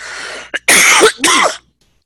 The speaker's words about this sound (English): Excuse me, I'm gonna have to cough again.